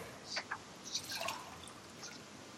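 Water is poured into a glass in short, quiet bursts to rinse between whisky tastings, with a few bright drips and gurgles over a faint background hiss. No one speaks.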